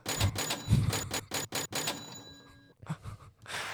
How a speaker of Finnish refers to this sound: Apollo-matkojen kassakone käy.